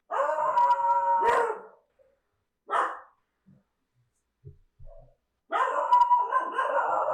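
Dogs howl and bark loudly in long, wavering bursts, with a short yelp in the middle and quieter gaps of faint scuffling before another drawn-out howling chorus.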